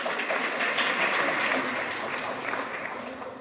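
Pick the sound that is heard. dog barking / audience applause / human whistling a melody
audience applause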